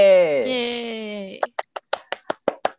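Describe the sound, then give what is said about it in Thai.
A drawn-out, rising cheer from a voice gives way to about eight crisp, evenly spaced hand claps from one person. The host makes the clapping himself to welcome a guest. “มีเสียงปรบมือด้วย สร้างเอง”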